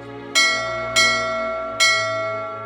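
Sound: bell ringing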